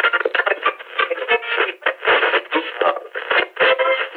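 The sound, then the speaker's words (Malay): The radio show Mrs. Makeover with a DJ plays steadily on EFM, a voice talking continuously through a thin, tinny, band-limited sound, moderately loud with no other noises around it, discussing halal certification for food products of SME and B40 entrepreneurs. “Cik Sal nak masuk kejap nak dengar radio show ni.”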